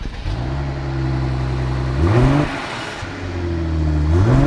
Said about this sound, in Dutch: Ah, bescheiden voor zo'n mooie grote auto. Ja, bescheiden geluid voor toch een heerlijke, lekkere motor weer. Dus in ieder geval niet de eh, 2 liter 4 cilinder, maar een 3 liter 6 cilinder.